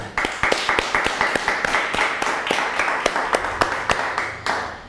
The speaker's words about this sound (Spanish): Sea usted bienvenido. Un fuerte aplauso a todos.